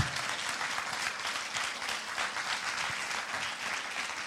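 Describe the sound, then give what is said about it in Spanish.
An audience at a church service bursts into sustained applause for the Lord, a dense, steady wash of many hands clapping at once for several seconds, with no voices standing out. “Alguien que lo crea, que le dé un aplauso fuerte al Señor.”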